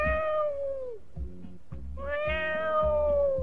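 cat meowing

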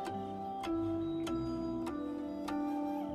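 clock ticking

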